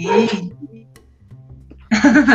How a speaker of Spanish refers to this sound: Eh, a ti se escucha tu perro, la moto acá, no manches, me matan de Los de los camotes.